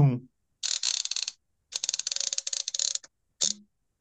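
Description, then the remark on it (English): Rapid mechanical clicking in three bursts, a ratchet-like release gauge on a drywall automatic taping tool (bazooka) as it is taken off gauge and unlocked, crisp, preceded by a brief voice at the start. “That's that's the release gauge of, of telling you it's it's out and everything.”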